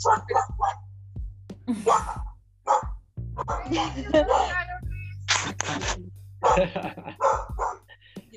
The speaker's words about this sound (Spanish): Perdón por mi perro